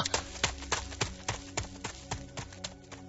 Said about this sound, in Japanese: 人の足音が聞こえる。よかった助けてもらおう